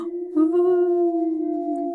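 A single long wolf howl holds a steady, mournful pitch for about two seconds, clear and fairly loud with no other sounds around it.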